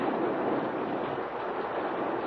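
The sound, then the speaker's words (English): A steady, dense hiss of falling rain from a December thunder shower fills the scene, a continuous downpour with no pauses or voices, fairly loud and evenly spread throughout. “it's only a thunder shower. Rain in December?”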